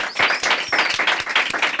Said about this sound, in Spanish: ¡Un aplauso de todos! ¡Bravo!